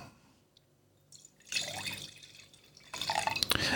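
Wine pours into a glass in two steady bursts with a gurgling, splashing trickle, the second louder and brighter than the first, with no talking.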